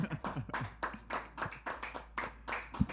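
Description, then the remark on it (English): Hands clapping in a quick, steady rhythm, about ten sharp claps over a few seconds, fairly loud with no talking underneath. “make some noise for that.”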